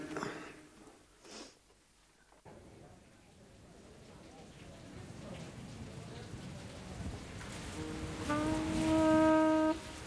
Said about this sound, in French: la pluie.